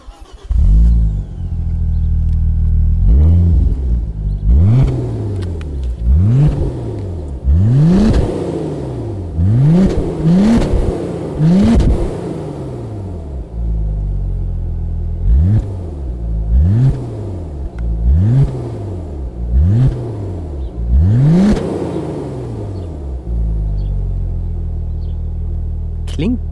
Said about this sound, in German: Von draußen auch schon imposanter. Ja. So richtig Turbo-Sound. Ne? Man merkt so richtig, wenn der Abgasdruck weg ist, dann schupp, fällt der Sound so ab.